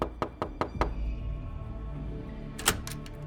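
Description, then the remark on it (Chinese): Five steady, evenly spaced knocks rap on the door of a house, then after a quiet pause comes a single sharper thud with a brief rattle. No one speaks. “最后，你摸了摸上衣口袋里的那个东西，终于你鼓起勇气上前敲开了这所房子的门。”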